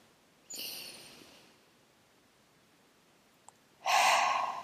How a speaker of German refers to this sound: Einmal tief atmen.